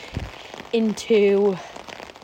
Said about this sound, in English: recorded a little bit of the atmosphere and what was just this year sound of rain